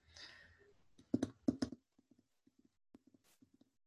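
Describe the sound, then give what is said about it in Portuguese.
Muffled hoofbeats of a horse walking in snow thud in an uneven walking rhythm, a few heavy steps followed by softer, sparser crunching footfalls, with a faint breathy hiss at the start and no voices. “É o cavalo indo caminhando na neve, né? Vocês estão escutando daí a sonoplastia?”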